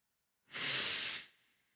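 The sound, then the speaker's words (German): A single deep, long breath drawn in through the nose as part of a calming breathing exercise, a steady airy rush lasting under a second before trailing off into quiet. No one speaks. “Sag dir laut oder im Geiste Ich und atme dabei tief und lange ein.”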